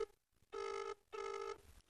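A telephone rings twice in quick succession for an incoming call, each ring a bright, buzzing electronic trill lasting under half a second, loud, with a short pause between bursts.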